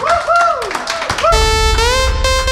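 A crowd claps and applauds loudly for a couple of seconds, with sustained horn-like tones and whoops rising over the clapping, all close and lively.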